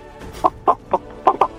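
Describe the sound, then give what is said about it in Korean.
A person imitates a chicken clucking in a vocal impression contest: five short, throaty clucks in a quick, slightly uneven rhythm, fairly loud, with nothing else around them. “뭐닭 울음소리”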